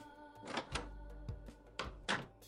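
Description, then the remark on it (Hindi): The front door of a flat is opened in the morning after the doorbell rings, with a series of clunks and latch clicks followed by a couple of heavier thumps, and no voices present. “एक सुबह मेरे घर की घंटी बजी मम्मी पूजा कर रही थी तो मुझे मन मार कर उठना पड़ा मैंने दरवाज़ा खोला”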